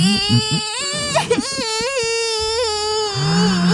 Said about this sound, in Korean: 아, 얘웬 애가 이거 뒤에서 울고 그래. 얘, 왜 울어? 누가 네 과자라도 뺏어 먹었니?